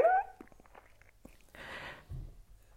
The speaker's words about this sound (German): Obwohl es mir so hundsmiserabel elend geht. Ähm, jetzt muss ich heulen.